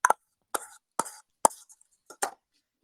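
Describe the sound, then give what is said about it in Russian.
Six sharp, hollow taps on a cheap disposable plastic yogurt cup land at a steady, slightly uneven pace, each a quick bright knock with a short papery ring, fairly loud against silence. “Нет, ну, ну пластик же слышно. Да? Слышно ведь дешевый пластик йогурта.”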